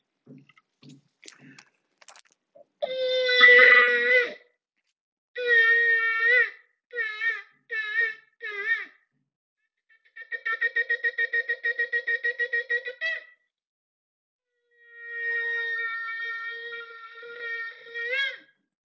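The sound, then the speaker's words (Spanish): A ram's horn shofar sounds a sequence of blasts during the month of Elul: a long call, several short broken notes, a rapid run of staccato pulses, then a final sustained blast, loud with no talking. “Deseo que estos toques del shofar y estos sonidos tengan sido significativos para ti, así como lo fueron para mí.”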